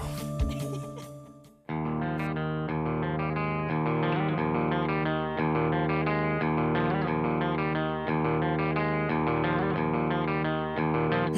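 A brief scrappy intro, then a loud, full rock band kicks in and plays steadily: distorted electric guitars over a driving bass and drums, with no voices.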